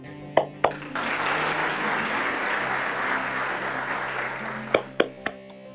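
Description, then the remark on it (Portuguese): A round of applause from a crowd swells for about four seconds as a dense, steady patter, framed by a few sharp isolated claps at the start and end, with a low hum underneath. “É, dá uma salva de palmas aqui.”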